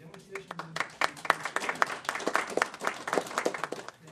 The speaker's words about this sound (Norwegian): Litt høflig applaus ble det på mannen som norske myndigheter og forskere mener det går an å høre på, selv om sjefen hans har en arrestordre hengende over hodet.